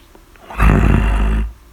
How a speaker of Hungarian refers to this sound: Ahogy a zsákot zötyögtette, a zsákban egyszer csak elmordult szobáka, a kutya